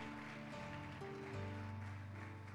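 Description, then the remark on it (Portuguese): A crowd claps steadily in praise of the Lord at a Christian worship service, a dense, continuous wash of applause while sustained keyboard chords play underneath, shifting pitch a couple of times. “Pode aplaudir o Senhor de verdade.”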